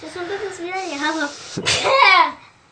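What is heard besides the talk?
sneeze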